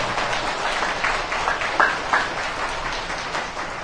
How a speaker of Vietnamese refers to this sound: như vậy các bạn trẻ hãy à, dành một tràng vỗ tay thật lớn để tán dương cái thiện chí của bạn mình